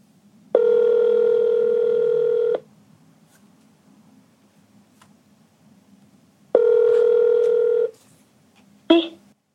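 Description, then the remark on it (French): A phone rings out twice as a call is placed to a woman at her home, each steady electronic ring tone lasting about two seconds with a long pause between, over faint line hiss, followed by a brief clatter as the receiver is picked up. “Elle a vécu très difficilement le premier confinement, elle s'est sentie comme coupée de tout, on l'appelle elle aussi pour savoir comment elle vit ce nouveau repli sur son domicile.”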